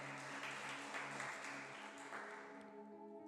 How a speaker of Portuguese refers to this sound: Aplauda o Senhor aí no seu lugar bem forte. Aleluia.